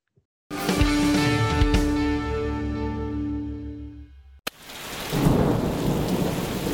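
A loud crack of thunder rolls into a long, deep rumble, then gives way to a steady wash of heavy rain pouring down. No voices.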